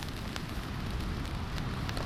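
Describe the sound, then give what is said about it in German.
Steady rain patters on a tent roof during a storm at night in Albany, on the coast of southwestern Australia, scattered drops tapping sharply over a continuous hiss and a low, blustery rumble of wind, fairly loud throughout. “Draußen blies ein Sturm und der Regen tröpfelte auf das Zeltdach.”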